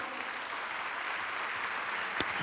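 A church audience applauds the Lord with sustained, dense clapping that holds steady throughout, with one sharper clap standing out near the end. No one speaks over it.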